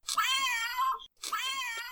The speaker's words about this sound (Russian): Что это за звук? Ты мучаешь котят? Это милая особенность этой игры. Когда открываешь упаковку с этой игрой, мяукает котенок.